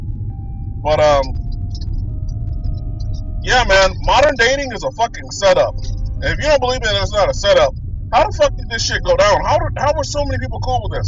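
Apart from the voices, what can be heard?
car interior road noise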